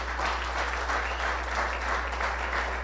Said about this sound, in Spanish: Si usted es tan gentil, si usted es un hombre, dele un aplauso a esas señoras con todo el corazón.